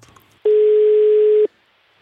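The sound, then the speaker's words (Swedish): A single steady telephone ringback tone sounds for about a second while calling a football player in Russia, a clear, unbroken electronic pitch heard alone against a quiet line, with no talking. “Eh, så jag tänker att vi ringer upp honom lite och kikar läget i Motherland.”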